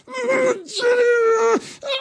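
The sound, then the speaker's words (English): A loud, strained human voice performs a monster's deafening, agonized scream: three drawn-out, wailing cries, the middle one longest, each breaking off abruptly, alone. “It is the Nothic's turn, um, and all of you sort of at once just hear this kind of this deafening um, sort of like a scream of agony, and he's, he's just like it's in my head.”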